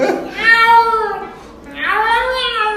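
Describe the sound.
A person imitates a cat, letting out two long, drawn-out meows with rising and falling pitch, loud, separated by a short pause.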